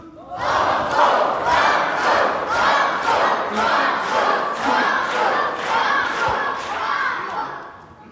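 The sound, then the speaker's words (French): A large quiz show audience shouts together in loud, rhythmic unison, chanting the word "Banco" over and over at a steady beat, about once per second, urging the contestants to play on, sustained for the whole stretch. “Et donc, ensemble, vous dites Banco.”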